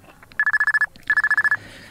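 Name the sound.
mobile phone ringing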